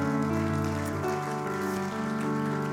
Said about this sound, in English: Um, the other thing I'm also truly thankful for is the team of volunteers that took the Shout Kids. Can we get an um, applause for those guys?